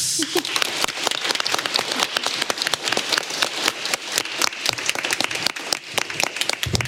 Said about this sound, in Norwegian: Men han kan få en kjempeapplaus.